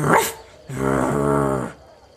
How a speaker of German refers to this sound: Äh, was ist das denn für ein niedlicher Hund? Ach das, das ist, das die alte Töle vom Dorfvorsteher. Klingt ja ein bisschen aufgebracht.